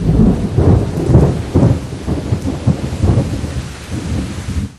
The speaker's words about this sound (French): Un soir, il faisait un temps horrible. Les éclairs se croisaient, le tonnerre grondait, la pluie tombait à torrents.